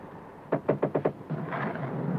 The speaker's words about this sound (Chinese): 不碍事，幸亏你敲门了。